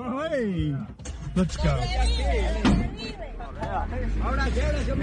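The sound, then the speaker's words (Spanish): Several sharp thuds of people kicking a car, then a harder crack of a thrown stone striking it and breaking its window, partly buried under loud, agitated voices talking throughout. “Hay varios impactos porque primero cogen a patadas el carro y después es, la pedrada”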